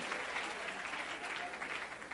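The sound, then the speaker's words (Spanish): An audience applauds steadily as a speaker enters the stage for a talk at an institution, many hands clapping in a dense, continuous patter that holds an even loudness throughout, with no voices standing out. “Y ustedes se emocionan, aplauden, gritan.”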